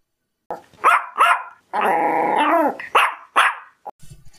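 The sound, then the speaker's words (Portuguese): Bombom, a French bulldog, barks in short, hoarse bursts, then lets out a longer rough, growling whine before a few more barks and a soft snuffle at the end. “O nome dele era Bombom, ele era da raça Bulldog francês.”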